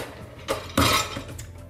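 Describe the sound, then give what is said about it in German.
Dishes clink and clatter as they are loaded into a dishwasher: a short knock, then a louder rattling burst of crockery, fading into quieter rustling. “mache ich noch die Spülmaschine fertig.”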